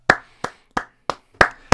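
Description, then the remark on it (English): A short round of applause made of six sharp, crisp hand claps in a fairly steady rhythm, each ringing briefly, with no voices over them. “round of applause for that one, ladies and gentlemen.”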